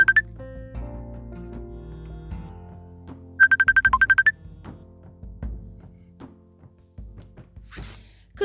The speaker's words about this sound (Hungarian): Közben a kislányom próbál engem elérni a telefonon, úgyhogy ö, megszakítjuk adásunkat